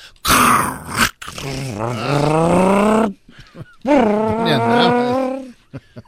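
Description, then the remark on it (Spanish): A man vocally imitates a bus engine shifting gears: a short noisy burst, then two long droning hums whose pitch rises and falls like an engine revving, loud. “Ya es que se oye cuando le meten el cambio.”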